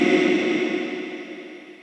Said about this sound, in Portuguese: Você quer eco?